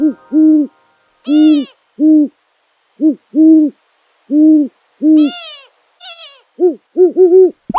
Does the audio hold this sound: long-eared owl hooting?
yes